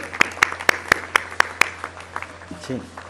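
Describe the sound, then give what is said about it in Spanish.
Steady, rhythmic clapping for military personnel who helped with equipment and construction, about seven sharp, evenly spaced claps, trailing off into softer scattered claps, with a brief murmur of voices at the end. “Un saludo a todos eh, los militares y un aplauso para ellos, por favor, que nos han ayudado mucho.”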